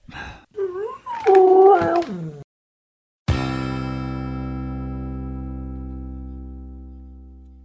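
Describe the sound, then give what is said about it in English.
A very wet dog named Rufus gives a few rising, wavering whines and yelps, fairly loud, then after a short pause a single bright struck note rings out and slowly fades away. “I'll sick my really wet dog on them.”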